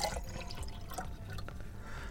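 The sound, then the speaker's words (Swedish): Water being poured, a steady splashing trickle that runs unbroken for a couple of seconds, quiet and alone with no voices. “Vatten? Si. Gärna.”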